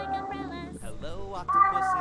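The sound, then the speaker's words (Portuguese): A cat meows, a drawn-out, high, tonal cry that swells louder toward the end, with people's voices murmuring around it. “Olha o gato. Olha o gato.”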